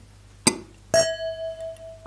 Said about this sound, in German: Wir stoßen jetzt erstmal so, an. Prost.